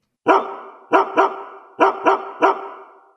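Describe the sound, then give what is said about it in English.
A dog barks six times in quick groupings, loud, with sharp onsets and short ringing tails between barks, in the opening of the Doggy Diva Show; no voices are present. “It's the bark heard round the world.”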